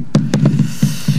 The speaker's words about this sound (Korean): 이게 북소리 같은데, 사과가요, 마룻바닥에 떨어져서 굴러가는 소리래요. 네. 이 소리요. 그렇게 설명 듣고 나니까 그렇게, 그렇게 들리시죠? 북소리 아닙니다. 사과가 마룻바닥에 떨어져서 구르는 소리.